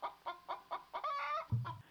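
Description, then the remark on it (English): A farm chicken clucks in a quick, steady run of short notes, then draws out a longer squawking cackle, clear with no one talking, ending on a soft low thump. “Forgetful Farmer Fred often forgot to collect the chicken eggs.”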